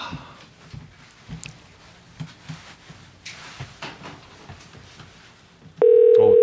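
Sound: telephone ringback tone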